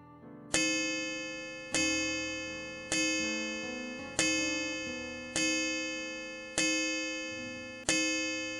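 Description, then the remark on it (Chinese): A clock chimes seven times, striking seven o'clock, each bright, ringing strike evenly spaced about a second apart and left to hum and fade before the next. No one speaks. “时钟敲了七下，现在已经七点了。”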